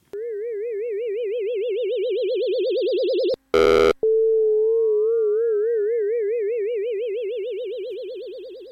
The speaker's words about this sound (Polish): Na nagraniu wyraźnie widać, że impulsy doprowadziły do przesterowania sygnału.